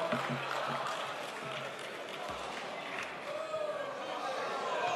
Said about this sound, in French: subit les sifflets et les colibets de certains députés en séance à l'Assemblée nationale